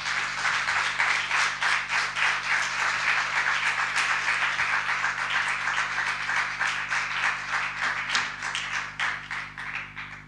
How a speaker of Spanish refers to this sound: Venga, pues con este aplauso vamos a empezar a escuchar.